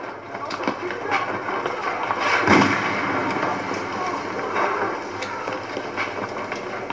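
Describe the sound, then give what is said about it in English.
Gunshots ring out over a dense, rumbling background, with one loud, sharp blast midway and several fainter cracks scattered around it. A voice murmurs faintly underneath. “More gunshots are fired as Augustus narrates about Dorothy returning home in The Wizard of Oz to close out the episode and end the first series.”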